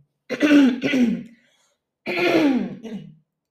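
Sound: coughing and throat clearing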